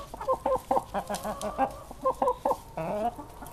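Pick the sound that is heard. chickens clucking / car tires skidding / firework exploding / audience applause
chickens clucking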